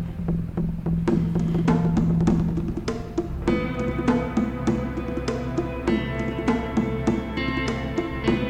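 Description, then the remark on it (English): A music track driven by hand-played conga drums, their crisp slaps repeating in a steady danceable rhythm over a sustained bass and layered melodic parts, loud, with no voices. “What those conga drums?”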